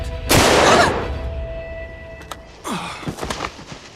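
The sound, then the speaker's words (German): A single loud rifle shot cracks out and rings off for about a second, followed by quieter scattered clatter and shuffling sounds. “Er grinst Maria diabolisch an, dann hebt er sein Gewehr erneut und zielt.”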